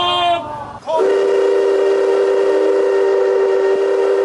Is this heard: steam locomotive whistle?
yes